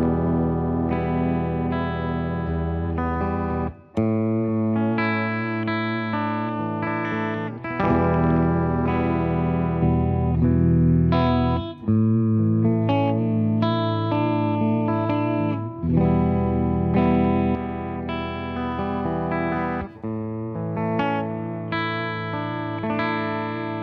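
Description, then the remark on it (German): An electric guitar played through a Uni-Vibe effect pedal placed behind the amp, its chords swirling with a throbbing, pulsing modulation and slight grit, ringing loudly with brief pauses between phrases and no talking. “Wollen wir mal hören, wie das Uni-Vibe alleine klingt. Das ist jetzt auch hinter dem Amp.”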